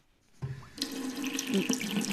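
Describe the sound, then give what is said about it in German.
Water gushes steadily from a tap, starting abruptly after a brief quiet moment and filling the space with a loud, continuous splashing rush that fills a basin or pool. “Dreh das Wasser ab, du Wahnsinniger.”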